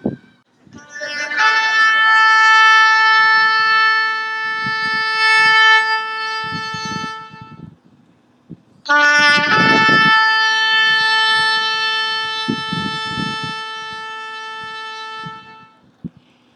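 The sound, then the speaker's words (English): A shofar, a ram's horn, sounds two long, loud, brassy blasts, each held for several seconds with a rich buzzing tone. A brief pause separates the blasts, with a faint murmur of people underneath. “Do you guys want to hear what a shofar sounds like?”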